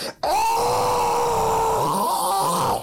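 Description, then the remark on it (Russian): A person's voice imitates a fox's night scream heard at 3 a.m., with one loud, drawn-out wailing cry that holds steady for over two seconds, then breaks off abruptly, with no other sounds around it. “это кричала лисица, потому что мы быстренько проверили, как кричит лиса”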